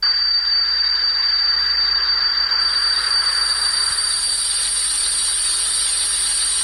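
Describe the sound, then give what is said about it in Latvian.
Simulated tinnitus: a steady high-pitched whistling tone with a broad hissing buzz beneath it, joined midway by a second, even higher piercing tone. Continuous and loud, with no voices; the kind of sound tinnitus patients complain of hearing in their heads. “kā teikānas svilpšana, kā viļņu šalkšana, kā elektriskā zāģa rūkoņa, kā cikāžu čirpstēšana. Par šādām skaņām galvā sūdzas tinīta pacienti.”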